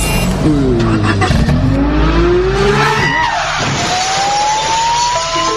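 vehicle, car driving off

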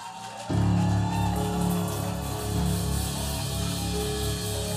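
crowd, audience clapping and shouting

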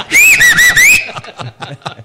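human body sound, person whistling

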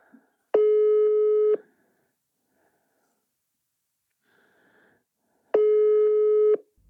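signal or alarm, telephone busy signal

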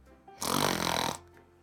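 sound effect, dog snoring loudly

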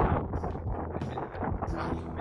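nature, wind blowing outdoors

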